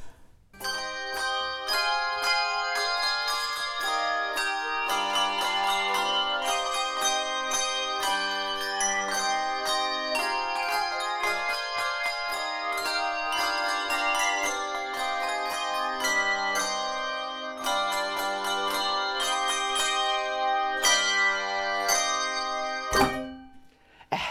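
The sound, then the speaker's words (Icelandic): A handbell choir plays a steady, ringing melody with many overlapping bell tones, bright and resonant, sustained throughout at an even loudness with no talking. “þetta er búin að vera æfintýri líkast bara að, að vera með þessi bjöllukóru og, og gaman að taka þátt í, í svona öðruvísi samspil”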